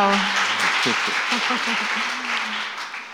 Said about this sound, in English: Well, I... two people clapped. so.